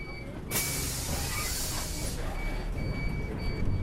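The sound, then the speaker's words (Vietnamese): A route 21A city bus rumbles up for passengers to board, letting out a loud hiss of air brakes or doors that lasts over a second, then keeps idling with a low engine drone and a faint high whine. “Bây giờ thì xe đến rồi San ơi, chị em mình cùng lên xe nhé.”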